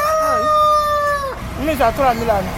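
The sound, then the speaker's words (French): A rooster lets out a long, loud crow, followed by a quick series of short, wavering clucks from chickens at a poultry sales stall in Akogbato, Cotonou, with stacked wire cages holding ducks, turkeys, quails, guinea fowl and hens. “Plusieurs grillages superposés contenant des canards, des dindons, des cailles, des pintades ou encore des poules et des coques.”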